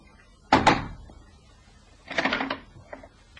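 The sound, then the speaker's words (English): Two sharp, loud knocks on the door of a house off Hanover Square in quick succession, followed by a pause and then a brief rattling clatter like a door latch or the door being opened. “He walked to the house off Hanover Square and knocked twice on the door.”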